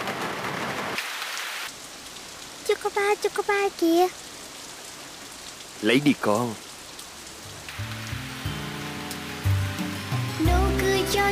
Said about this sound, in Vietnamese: Mưa rồi kìa, nhanh lên em.